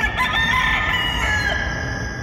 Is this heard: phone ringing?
no